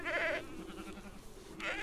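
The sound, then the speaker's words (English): Two bright, quavering bleats from young lambs in a large pen where they are sold ring out, one at the start and another near the end, separated by a quieter stretch of low farmyard murmur. “they approached, they saw the large pen filled with young lambs and the smaller cages that contained pigeons and turtle doves.”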